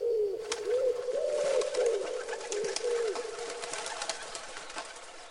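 A pigeon coos in a soft, low, repeated burbling pattern, several rolling coos in a row, over a steady hissy background with scattered light clicks and rustles.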